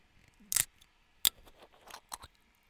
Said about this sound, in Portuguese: Vou abrir uma aguinha das pedras.